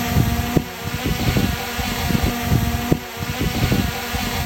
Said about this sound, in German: Das ist eine handelsübliche kleine Drohne beim Starten, die wiegt knapp 250 Gramm, ist damit wirklich klein, flexibel einsetzbar und liefert verdammt gute Aufnahmen. Privatmenschen machen damit tolle Landschaftsaufnahmen.